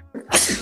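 A single abrupt sneeze: a short indrawn breath followed by a loud, sharp burst of air that trails off quickly.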